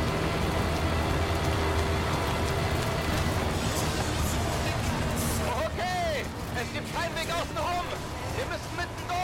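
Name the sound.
storm rain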